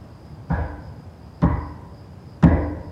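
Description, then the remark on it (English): Three heavy, evenly spaced knocks ring out about a second apart, each with a short echoing tail, coming from down the hall of a dark house at night. No voices are heard. “She's woken up by the sound of footsteps and a strange knocking down the hall.”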